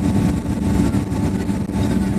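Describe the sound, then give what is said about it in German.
A steady, loud airplane engine drone with a deep low rumble and a faint constant tone above it, holding level throughout as the plane taxis and turns onto the runway for takeoff, with no talking. “Ihr habt gehört, Klick macht schon, wir gehen glaube ich auf die Startbahn. Also es wird lauter, ihr hört das schon.”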